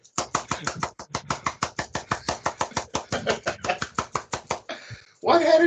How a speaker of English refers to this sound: Have you ever seen anyone do a one handed clap?